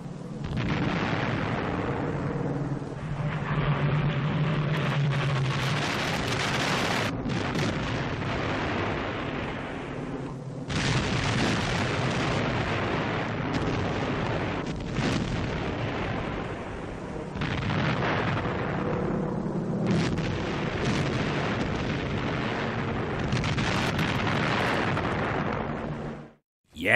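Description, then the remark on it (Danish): A soundscape of the German invasion of Norway in the Oslofjord on the morning of 9 April 1940: heavy, continuous rumbling blasts and booming detonations, like artillery fire and explosions, roll on densely for nearly half a minute with brief lulls, loud, with no voices. “det vi hører her, det er et øh, lydbillede fra Oslofjorden i øh, tiden øh, om morgenen den 9. april 1940, hvor hvor Tyskland øh, indleder invasionen af Norge, og jo også Danmark”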